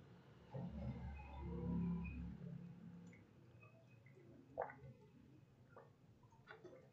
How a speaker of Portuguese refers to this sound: Mas eu estou procrastinando, eu vou beber mais um água para dar mais tempo do podcast e para procrastinar mais um pouquinho. Procrastine bebendo água, eu bebendo 4 litros por dia.